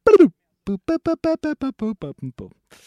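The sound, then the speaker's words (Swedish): A voice imitates a video game death jingle, the sound for a character who dies, singing about ten short, evenly spaced notes that step steadily downward in pitch after a brief opening syllable. “Vi behöver ett ljud på den som dör.”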